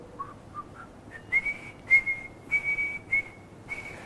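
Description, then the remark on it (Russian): A man whistles a short melody imitating the recorded music that opens a theatre production, a few soft low notes climbing into clear, sustained higher tones, with no talking. “Ну это так для я себя, свищу.”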